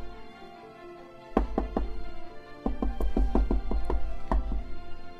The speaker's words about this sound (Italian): Eh, Va bene, bussa, porta, bussa!